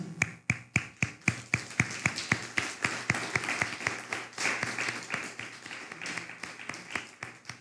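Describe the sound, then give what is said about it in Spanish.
Rhythmic hand clapping, a steady series of sharp claps that blends into a denser wash of applause midway before separating into distinct claps again. No voices are heard. “Fuerte aplauso a California.”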